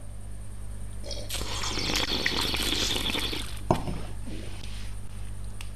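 A wet slurp of a drink drawn in with air for about two seconds, then a short click and quieter trailing sips over a steady low hum.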